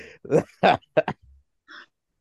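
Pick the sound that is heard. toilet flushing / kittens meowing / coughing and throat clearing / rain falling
coughing and throat clearing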